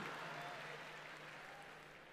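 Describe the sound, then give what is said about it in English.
An audience claps for themselves, a dense wash of many hands at an even level throughout, with no voices standing out above it. “Yes, you can clap for yourselves.”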